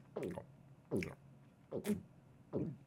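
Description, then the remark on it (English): A voice imitates someone's loud gulping while drinking water from a cup: four wet, throaty swallows at an even pace, fairly loud, with short pauses between them. “every time you drink, I literally I just want to just punch a baby giraffe”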